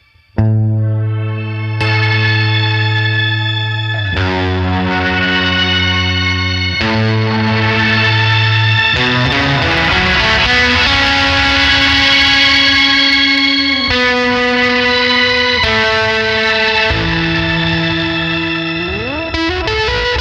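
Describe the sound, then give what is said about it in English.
Heavily fuzzed electric guitar, run through a Seraphim fuzz pedal into a Carcosa fuzz pedal, plays loud, sustained notes with a thick, saturated buzz, shifting pitch every few seconds and gliding between notes, with no one talking over it. “All right, so we've got the Seraphim running into the Carcosa which is then going to run into the Matthews.”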